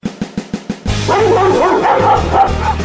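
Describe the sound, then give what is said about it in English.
Five quick, evenly spaced barks ring out, then a loud, dense chorus of several dogs erupts, barking and yelping over one another without a pause. “Okay, time to call off the dogs.”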